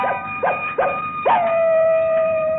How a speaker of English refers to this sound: Coyote. There's more them critters out on our prairie here than there is people in San Ventura.